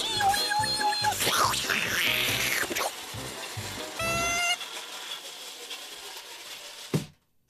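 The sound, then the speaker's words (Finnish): A toy car, driven by an adult playing with a child, whirs and rattles along with shrill electronic tones and clicking, the busy mechanical noise fading before a sudden sharp crash as it collides near the end, then silence. “Tuli kolari.”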